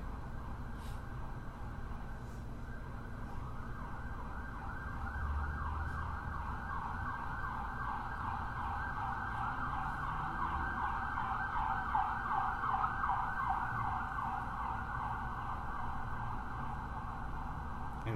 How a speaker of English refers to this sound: Here we have these sirens. but to me, they're so amazing to pause and just really hear them. help is on the way